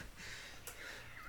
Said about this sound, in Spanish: Y ahorita voy a tomar un momento para estornudar.